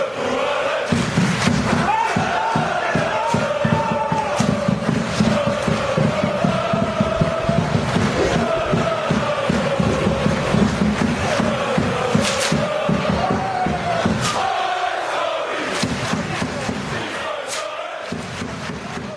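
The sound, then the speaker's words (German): Football supporters chant together in the fan stand during a match, a loud sustained mass of voices with rhythmic rises and swells, punctuated by sharp claps or thuds, continuing for the whole stretch. “Hassvereins Nummer eins, wenn ich eben die Gesänge gegenseitig gehört habe, äh, auch beim Spiel, scheint der Lask so sein.”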